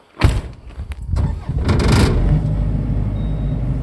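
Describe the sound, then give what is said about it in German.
An emergency power generator cranks and catches with a few sharp mechanical clatters during a test, then settles into a steady, loud, low droning hum as it runs on its own. “Wenn der Strom ausfällt, kann er die anwerfen und dann funktioniert, dann produziert dieses Notstromaggregat Strom.”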